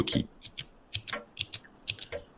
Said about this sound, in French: Je me suis mise à jouer machinalement avec le bouton du talkie